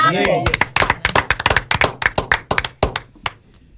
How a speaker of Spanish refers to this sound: Que están aquí en cabina con nosotros. Pedimos un aplauso.